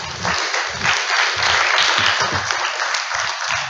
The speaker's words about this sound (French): Euh, Bonjour. Euh, est-ce qu'on veut bien applaudir un petit peu le retour plateau